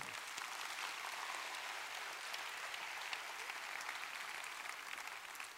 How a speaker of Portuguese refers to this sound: Quem pode dar um aplauso a Jesus nessa manhã?